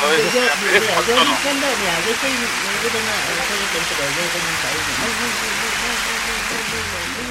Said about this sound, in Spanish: Y desde luego es un, es un logro que, de Nintendo, que una compañía que nosotros queremos muchísimo, de todas maneras, nosotros se lo celebramos esto. Así que... Sí, aplauso.